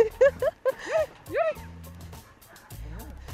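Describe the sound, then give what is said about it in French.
Three sled dogs yip and bark excitedly in quick succession, high-pitched, then give way to a softer rumbling and a few whimpering calls as the team sets off pulling a sled across a lake. “part avec le trio de chiens, chien de traîneau. Il s'enfonce sur le lac glisse.”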